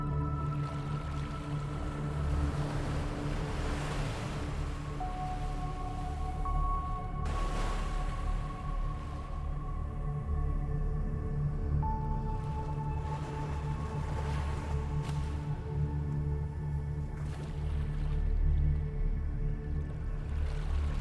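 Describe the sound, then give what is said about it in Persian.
Steady, low rushing of sea waves with occasional soft surges, heard alone and mixed with faint sustained tonal hums drifting in and out, played for a relaxation meditation for sleep. “مدیتیشن ریلکسیشن برای خواب راحت با صدای امواج دریا”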